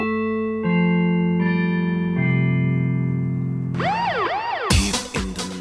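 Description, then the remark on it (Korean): A quiz-show golden bell chime played during a radio broadcast to signal a quiz: loud electronic tones climb in steady steps, then break into warbling, siren-like sweeps and end in bright, crashing bursts, with no voices. “자, 골든벨 종소리입니다. 방송 중에 이 소리가 울리면 퀴즈를 드릴 거예요.”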